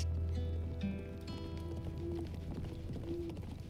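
A horse's hoofbeats approaching at night from the east, a rider on horseback, clip-clop in a quick, uneven rhythm over a steady low rumble, holding at a fairly constant loudness throughout, with a few faint tonal chirps in the background.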